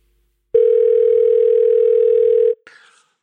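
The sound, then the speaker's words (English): A loud, steady telephone dial tone hums unbroken for about two seconds, then cuts off abruptly and is followed by a brief, fading electronic chirp, a jingle for the phone box feature of the James Whale radio show. No voices are heard. “Let's do the phone box and then come out to Whale Mail.”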